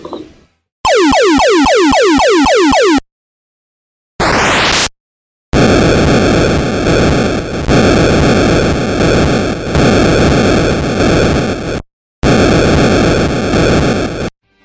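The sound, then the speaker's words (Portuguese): Retro video game missile explosions from the cartridge game Missile Command: a burst of descending electronic zaps, a short rising sweep, then long, loud, harsh bursts of buzzing static noise separated by brief silences, with no voices. “Tô, eu achei as explosões bem incríveis, cara.”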